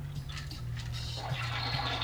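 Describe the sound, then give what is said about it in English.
A toilet flushes, a steady rushing, gurgling wash of water that fills the short stretch, with a low hum underneath and no talking. “Hold on, let me flush the toilet real quick.”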